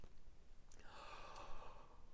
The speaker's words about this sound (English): So um, with your thumb and your forefinger, just like a crab, grab the outside of your larynx. It's that hard cartilagey part. Breathe in on a nice ah and let the larynx drop.